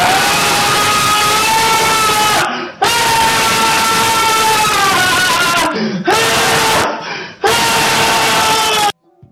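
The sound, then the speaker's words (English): A blood-curdling scream rings out loud and sustained, a harsh, strained, high-pitched shriek that breaks off briefly and resumes in three long bursts before cutting to silence. “That's the blood curdling scream of nostalgia.”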